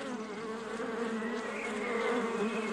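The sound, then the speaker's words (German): A steady, dense hum of many honeybees buzzing around beehives as a beekeeper opens the hives, a continuous droning swarm sound with slight wavering pitch and no voices. “Wir gehen mal näher ran an die Bienenstöcke.”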